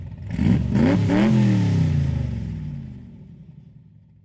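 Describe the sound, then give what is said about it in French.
A car engine revs hard several times in quick succession, its pitch climbing and dropping, then settles into a lower rumble that fades out. Loud, with no voices. “Il achète plusieurs grosses voitures, des Rolex et même deux jet skis.”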